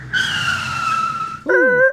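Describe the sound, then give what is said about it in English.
A loud, sustained screech of car brakes, a high tonal squeal lasting over a second, cut off by a shorter, sharper second squeal at the end. No one speaks. “I'm gonna hit the brakes.”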